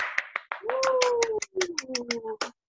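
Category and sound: crowd, hand clapping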